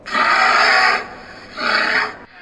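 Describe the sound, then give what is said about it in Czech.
A bear nearby gives two loud, rasping vocal bursts, each about a second long with a short pause between, harsh and breathy, with no other sounds around, in the deep forests of Svaneti. “Potom prchejte s modlitbou na rtech, protože na blízku je medvěd a to je jiná liga.”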